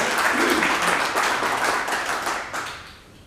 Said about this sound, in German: Wunderbar. Ein großer Applaus an Sie.